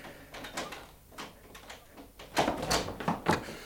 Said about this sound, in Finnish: Avatkaa ovi.